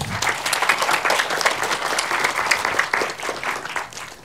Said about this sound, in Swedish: En applåd!